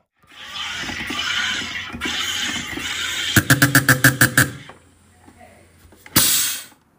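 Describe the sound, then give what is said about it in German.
A home soda maker carbonating water: a sustained hissing gurgle, then a quick series of loud buzzing pulses, a brief quiet, and a sharp burst of hiss as pressure is released. “Das war kein warmer Geysir, sondern Jörg ein ein Wassersprudler”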